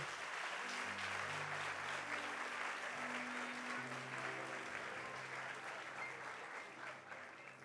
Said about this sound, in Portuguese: Dá uma salva de palmas para os dois aqui.